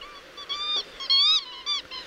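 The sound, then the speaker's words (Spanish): A series of high, thin trumpet-like whistles from a trompetera bird calling, four or five bursts with stacked harmonics, the loudest in the middle, piercing and nasal, with no talking. “Bueno, sonido muy finito, muy llamativo, ¿eh? una especie de, de pito ahí, ¿eh? muy agudo, muy, muy agudo y bueno, que tiene mm, algunas variaciones, ¿eh?”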